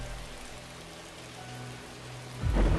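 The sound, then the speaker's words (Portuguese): Steady, dense torrential rain hisses throughout, with a low rumble beneath it that swells into a loud thunder crack near the end. No one speaks. “A chuva torrencial deu lugar a uma garoa e a noite ao dia nublado.”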